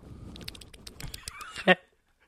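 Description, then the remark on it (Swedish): A person's voice makes a short, strained, whinny-like imitation of a horse for a game, ending in a loud nasal burst near the end before quiet; faint scratchy clicks run underneath. “Och du, du får eh, låta, hur låter en häst? Du, du får göra ljudet från hästar.”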